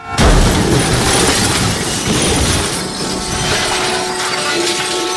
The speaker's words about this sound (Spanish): Entre la huida, los balazos y el perro desangrado, Octavio, interpretado por Gael García Bernal, choca de frente con otro coche. Así comienza Amores Perros, y si nos ponemos cursis, uno podría decir que así comienza toda una época del cine mexicano.